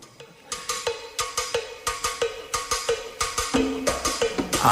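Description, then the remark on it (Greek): A song is played on the radio for listeners, with a brisk, steady beat of sharp percussive hits, something like a cowbell, over sustained tonal accompaniment. The music is clear and fairly loud, with no talking over it. “Καλό μεσημέρι και στου ακροατέ μα με ένα τραγουδάκι που του στέλνουμε τώρα.”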